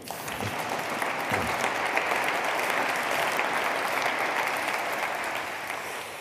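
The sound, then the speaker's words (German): An audience claps steadily as the event's guests are introduced, a dense wash of many hands patting at once. It holds at an even loudness for about six seconds before tapering slightly at the end. “Bleiben Sie erstmal alle sitzen, ich stelle Sie alle vor, aber klatschen dürfen Sie, wann immer Sie wollen.”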